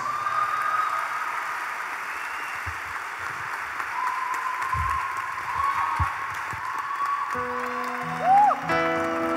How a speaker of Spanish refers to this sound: les aplauso más fuerte a nuestro Señor Jesús.